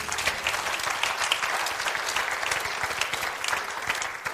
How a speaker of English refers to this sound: Uh, one more hand clap of praise.